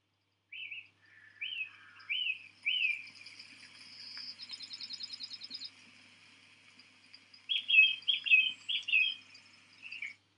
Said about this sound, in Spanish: he comprobado que tiene un efecto muy similar el ruido de pajaritos. El ruido de pajaritos, que vamos a poner, esto también tiene entre los ruidos de naturaleza, el de pajaritos.